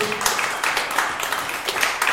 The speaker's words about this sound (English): Uh, give our guests one more big round of applause.